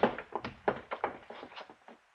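A man's body tumbles from a chair in a library in a quick, irregular series of wooden knocks and dull thuds that gradually taper off, with no voices.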